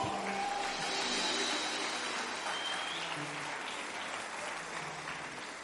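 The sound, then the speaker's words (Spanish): Sustained audience applause for the band, a dense crackle of many hands clapping at a steady level for several seconds, tapering slightly toward the end with no voices standing out. “Denle un aplauso a la banda, por favor.”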